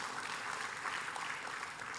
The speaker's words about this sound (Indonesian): Berikan tepuk tangan buat Tuhan Yesus.